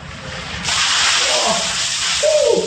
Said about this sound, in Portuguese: se o pessoal quiser nos acompanhar nas redes sociais enquanto cumprem o desafio do balde de gelo...